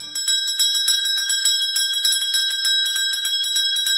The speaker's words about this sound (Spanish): Buenísimo, interesantísimo quiero escucharlo con un dindindón de navideño.